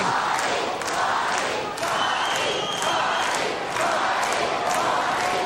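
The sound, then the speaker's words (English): A large WWF wrestling arena crowd yells and cheers for Marty, a dense roar of many voices with swelling shouts rising and falling throughout, loud and steady with no clear individual speech. “Listen to the people yelling for Marty.”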